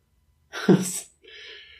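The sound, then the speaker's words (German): A single sharp, explosive cough bursts out, followed after a brief pause by a softer, hissing breath. No one speaks. “Ich fühle mich wie so ein, ich weiß es nicht, wie so ein richtig geschädigter alter Sack, der, der irgendwie wirklich ein Messer im Rücken stechen hat und ab und zu kommt es mal so, äh, äh, uh, hoch, so, äh, uh, für nur das Huste dazu.”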